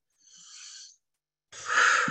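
A deep, airy breath drawn in through the nose during a parasympathetic breathing exercise: a softer hiss, a brief pause, then a louder, fuller rush of air that runs to the end. No one speaks.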